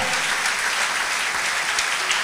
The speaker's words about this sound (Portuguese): Vamos aplaudir nosso Deus, vamos. Aleluia.